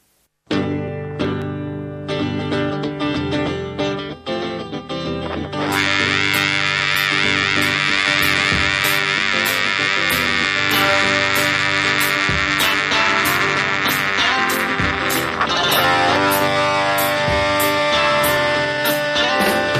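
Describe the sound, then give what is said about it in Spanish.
A loud 1960s Latin American psychedelic rock song kicks in after a brief pause, with buzzing, fuzzy guitar tones that swell into a dense, sustained wall of sound halfway through. “Primero vamos a escuchar a … con el tema ….”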